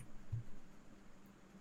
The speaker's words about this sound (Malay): Alamak bising pula bunyi api ni.